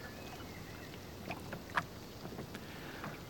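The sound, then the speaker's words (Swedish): A small wooden rowboat moored at a jetty rocks in the water as a man steps aboard with heavy bicycles, giving a couple of soft knocks and creaks over a steady outdoor hiss, no voices. “Skyggt tittar mannen omkring sig innan han kliver ner i båten. Den gungar till men han lyckas placera de tunga cyklarna i fören utan att tappa balansen.”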